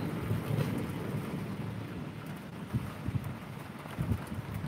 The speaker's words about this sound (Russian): Да, греми давай. Да, вы правы, может, не буду сегодня вмешиваться в природу, жалко останавливать дождь, пускай будет.